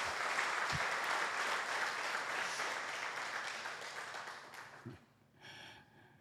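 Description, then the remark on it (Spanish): An audience applauds in congratulation, a dense, steady burst of clapping lasting several seconds, then tapering off quickly near the end. “Entonces quiero que se dé un aplauso y muchas felicitaciones.”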